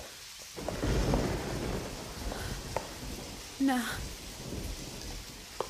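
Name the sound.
rain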